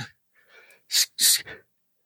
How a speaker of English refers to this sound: excuse me, I have got had a sneeze there.